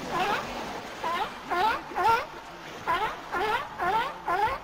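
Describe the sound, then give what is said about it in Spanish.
A seal calls over and over in short, wavering, cat-like wails, about eight fairly loud cries in a quick uneven rhythm with no one talking. “Pero no, una foca.”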